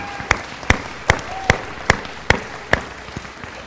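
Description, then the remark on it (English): Steady, rhythmic clapping for the sound technicians, sharp claps roughly every half second over about three and a half seconds, fairly loud against a low background hiss, with no talking. “So give them a hand of honor and respect.”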